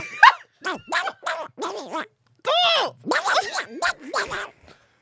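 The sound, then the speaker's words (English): A person does a raspy Donald Duck voice impression, spitting out a quick run of buzzy, garbled quacking syllables in short bursts with brief pauses, fairly loud. “My Donald Duck gets her every single.”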